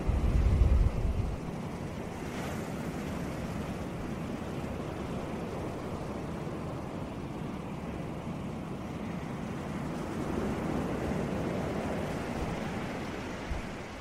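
Steady, continuous ocean surf with a broad rushing wash of waves and a low rumble, opening with a brief heavy burst of wind buffeting. No voices are heard.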